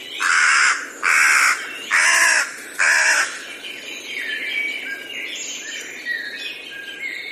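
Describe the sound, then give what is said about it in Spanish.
A crow caws four times in a steady, evenly spaced series, loud, harsh and raspy, in a forest. Afterward, fainter birds chirp and twitter in the background. “De vez en cuando se oía el claro martilleo del pájaro carpintero o el lúgubre llamado de una corneja.”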